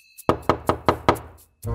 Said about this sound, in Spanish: Llaman a la puerta, iré a ver quién es.